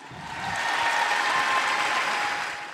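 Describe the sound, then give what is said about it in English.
An audience claps steadily for a few seconds, a dense, even patter of many hands that swells up and then tapers off slightly at the end. “Come on, to, clap for that.”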